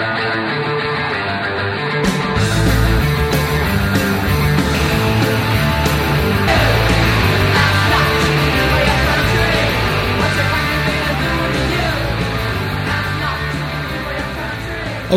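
A loud, fast punk rock song with dense distorted guitars and driving drums kicks in after a brief quiet moment and plays steadily to the end, with no talking over it.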